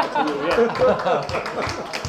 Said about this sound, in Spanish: ¿Te, ha gustado? Sí, pues oye, un aplauso para ella.